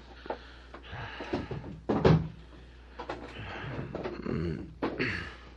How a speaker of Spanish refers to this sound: Voy a cerrar la puerta de Gregorio.